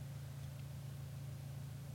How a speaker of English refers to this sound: we're in the back of a car here and we're on our way to the train station.